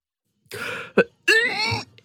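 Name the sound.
gagging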